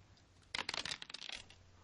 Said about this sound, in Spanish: Entonces tenemos habilidad destreza, eh, es una mm, es bastante complicado, así que vamos a tirar eh, cuatro dados de cuatro. Y vamos a, a, a quitar el mayor.